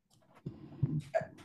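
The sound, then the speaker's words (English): A small dog named Chili Bean makes a few soft, brief noises, short whiny yips and snuffles in quick succession, fairly quiet, with no one talking. “sorry my little dog here chili bean”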